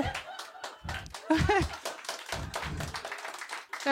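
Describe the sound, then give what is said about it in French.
Scattered clapping from a small group, a brisk crackle of hand claps mixed with laughter and overlapping voices, fairly steady in loudness over a few seconds. “Vous applaudissez mon over flingué, là.”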